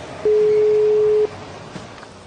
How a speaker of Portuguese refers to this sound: Ih, rapaz, não vai atender. Só falta no. Atende esse telefone, senão eu vou.